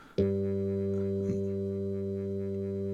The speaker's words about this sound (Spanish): El sonido de el cinematógrafo de pronto emitió un ruido muy duro